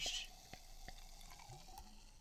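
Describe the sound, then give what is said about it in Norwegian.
Champagne from a freshly opened bottle fizzes in a glass, opening with a brief airy hiss and settling into scattered tiny pops and crackles, fairly quiet, with no voices. “Det er lyden av champagne.”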